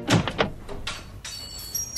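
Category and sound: household object, door opening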